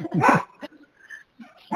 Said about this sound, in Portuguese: um cachorrinho